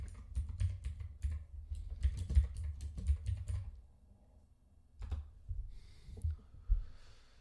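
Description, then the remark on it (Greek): Rapid typing and clicking on a computer keyboard as someone closes many open pages, a burst of quick keystrokes for a few seconds, a short pause, then more scattered clicks and taps, with no one speaking. “Μισό λεπτάκι να διαγράψω εδώ 15.000 σελίδε που έχω ανοιχτέ.”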